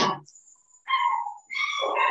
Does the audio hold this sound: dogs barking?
yes